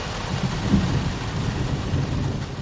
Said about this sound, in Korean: 규석의 형에게서 연락이 온 것은 본격적인 여름을 알리는 소나기가 쏟아지던 날 늦은 오후였다.